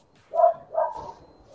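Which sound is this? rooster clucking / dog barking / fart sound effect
dog barking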